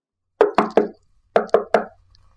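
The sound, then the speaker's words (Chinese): Urgent knocking on a room door aboard a boat moored in a harbour at half past three at night, less than two metres from the listener: two quick sets of three loud, hollow knocks separated by a brief pause, with no voices present. “咚咚咚，咚咚咚，半夜我被急促的敲门声惊醒。”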